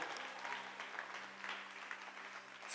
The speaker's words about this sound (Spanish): Da un fuerte aplauso a Dios por su fidelidad.